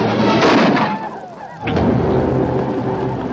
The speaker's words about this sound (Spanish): Se aleja pero da la vuelta y vuelve a disparar.